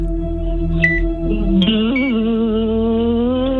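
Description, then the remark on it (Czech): A voice imitates a mosquito with a sustained, nasal buzzing whine that holds steady and wavers slightly in pitch, fairly loud, with no other talking. “Jak dělá komár?”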